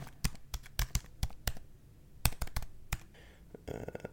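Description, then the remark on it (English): Clicking of someone typing a credit card number on a computer keyboard while booking a flight, with quick irregular keystrokes in two short bursts separated by a brief pause. No one speaks. “Okay, enter credit card number”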